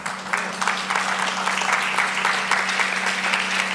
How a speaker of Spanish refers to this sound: Gloria a Dios por ese aplauso. Porque ese aplauso fue para el Señor. Gloria a Dios por ese aplauso. Cuando, se da un aplauso así es porque nace de un corazón que no finge, sino que de un corazón que siente